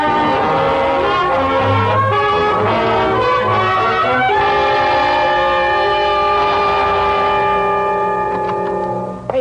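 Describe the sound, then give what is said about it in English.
A loud train horn blares in long sustained chords over the heavy rumble and clatter of a passing train, holding steady for several seconds before tapering slightly at the end. “Away from trains, gentlemen.”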